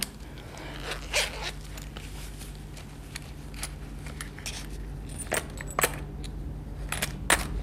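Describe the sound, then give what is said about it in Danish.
Coins clink and rattle as they are handled and scooped up, with a series of light metallic taps and a few sharper clinks over a low steady hum, with no talking. “Jeg må hellere tage nogle af de her mønter.”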